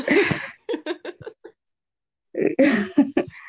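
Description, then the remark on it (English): A loud cough followed by a short run of throat-clearing bursts, then a pause before another harsh bout of coughing and clearing, heard alone without talk. “I took it, and it went down the wrong way, and I was like, "Please don't let me just start coughing."”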